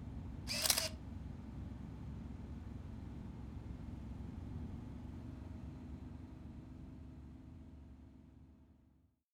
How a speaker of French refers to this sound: Tristan reprit une photo.